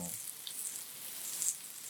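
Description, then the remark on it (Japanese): Rump meat sizzles steadily on a hot grilling stone at Ogawayama, a continuous hiss of crackling fat with a few brighter pops, and no talking. “小川山で今、まだ、うちを、じゅうじゅうじゅうやって”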